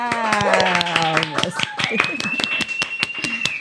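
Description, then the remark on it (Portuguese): Steady, rhythmic hand clapping at a quick even beat, loud and sharp, with sustained voiced tones, like cheering or singing, running over the claps throughout. “Minha gente, uma salva de palmas.”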